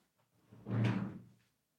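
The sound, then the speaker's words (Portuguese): A door is swung and shut in one muffled motion, a rising whoosh ending in a soft low thud, with no voices around it. “Eu vou levar lá à porta e depois edito isto.”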